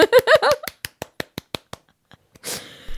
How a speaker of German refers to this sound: Aber eigentlich, finde ich, können wir uns schon mal applaudieren, dass wir so viele Folgen schon aufgenommen haben. Ich, ich klatsch mal für uns, okay? Weil ich finde uns super.